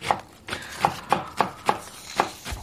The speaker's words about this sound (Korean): 어머니가 아침에 일찍 일어나셔서 식구들을 위해서 이렇게 예? 준비하는 그런 식사 소리 같죠.